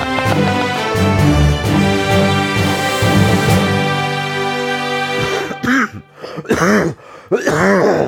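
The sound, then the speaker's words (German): A long stretch of steady, tonal music ends abruptly, followed by several loud bursts of throat clearing and rough coughs, closely spaced over the last few seconds. “So, jetzt können wir uns aushusten.”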